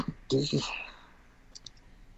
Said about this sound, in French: Euh, on va tirer les dés.